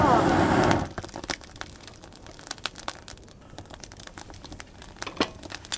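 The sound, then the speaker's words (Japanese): A very smoky campfire finally catching flame: a brief loud rushing burst gives way to irregular sharp crackles and pops, some louder snaps scattered among softer ticking. “煙がすごいあやっといに火が出てきた”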